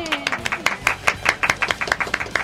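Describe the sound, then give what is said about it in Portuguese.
A small audience of course classmates applauds the winner of the Gamer quiz at IFCE, their brisk, uneven claps overlapping into a lively patter that stays steady throughout, with no one speaking. “Teve torcida no Gamer de hoje, né?”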